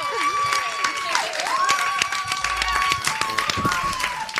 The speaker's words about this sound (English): And applause again. Thank you.